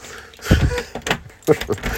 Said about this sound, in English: I can't get that sodden key in the door.